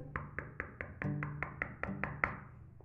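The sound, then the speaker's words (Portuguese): A quick, steady series of about ten sharp knocks on a door, fairly loud, with a faint low hum underneath. “Ele bateu na porta”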